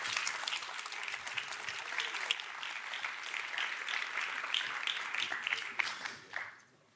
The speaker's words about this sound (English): Please give him a warm applause.